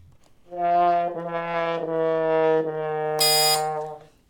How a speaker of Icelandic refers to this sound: Básuna. Það er básuna, vel gert.